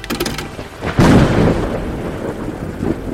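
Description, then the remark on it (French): A sharp, loud thunderclap bursts in about a second in, then rumbles on heavily over steady rain and storm noise, with no voices. “La tempête arrive bel et bien, mais avant l'orage, place au coup de tonnerre.”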